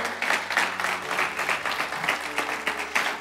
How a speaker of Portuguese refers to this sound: Por isso eu e você, pode aplaudir o Senhor.